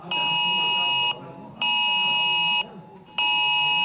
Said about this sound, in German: Pünktlich um 11 haben viele Smartphones die Warnmeldung vom Bundesamt für Bevölkerungsschutz bekommen. Das neue Cell Broadcast System ist also eingeläutet.